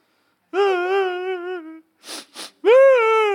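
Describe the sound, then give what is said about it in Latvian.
A person imitates desperate wailing: a long, wavering cry, two sharp ragged breaths, then another loud drawn-out wail, alone with no talk. “Esat dzirdējis, kā izmisis cilvēks rauda.”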